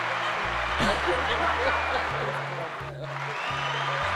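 Steady, dense applause for a guest entrepreneur, many hands clapping at once, a continuous crackling wash that holds level for about four seconds while low, stepping tones hum underneath.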